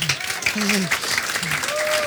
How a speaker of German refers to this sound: Ja, es gibt Live-Applaus.